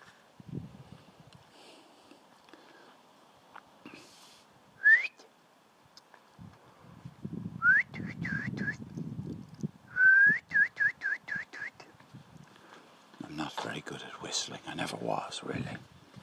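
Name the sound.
person whistling a tune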